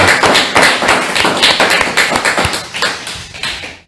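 crowd, loud applause

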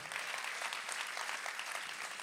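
crowd, audience applauding

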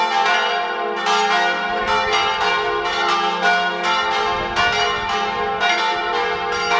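signal or alarm, church bells ringing

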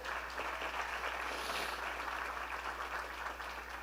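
crowd, audience applauding

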